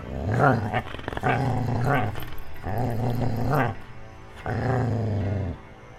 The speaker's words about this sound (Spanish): Después de caminar un rato entre la oscuridad, el perro se detuvo y comenzó a gruñirle a algo que mi padre no era capaz de ver.